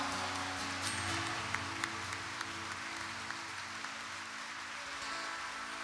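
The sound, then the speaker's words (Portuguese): An audience at a church service applauds the Lord steadily, a dense wash of many hands clapping at even loudness for several seconds, with a few sharper claps standing out and a low hum underneath. “Salva de palmas ao Senhor.”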